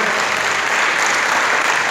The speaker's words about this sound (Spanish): Dale un aplauso al Señor, por favor, esta noche.